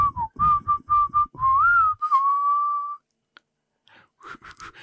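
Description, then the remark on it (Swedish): A person whistles with two pouches of snus in the mouth: a quick run of short notes, then a longer wavering tone, with wet, mouthy chewing noises underneath; after a pause come faint scattered clicks and rustles. “Jag funderar på om jag ska spotta snusen för att kunna vissla här.”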